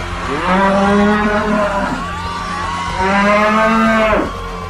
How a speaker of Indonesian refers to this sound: Joko Tingkir segera memasukkan tanah yang diberikan oleh Kibuyut Banyu Biru ke dalam mulut banteng. Seketika itu juga banteng mengamuk dan lari ke alun-alun Prawata. Awas, ada banteng mengamuk.